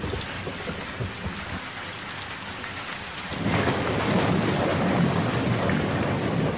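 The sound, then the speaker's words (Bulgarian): Heavy spring rain pours down steadily, a dense hiss of drops that swells noticeably louder about halfway through, with low rumbling underneath like thunder. “Толкова силно валеше пролетен дъжд, който пълни за миг шепите ти, ако си навън и протегнеш ръце напред.”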